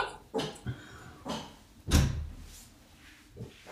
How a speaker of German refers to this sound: Ja, Warte, ich, ich mach mal die Tür zu.